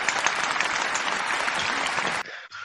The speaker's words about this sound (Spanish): pero vamos, usted va a escuchar mucho más aplauso, seguro. Lo estoy escuchando.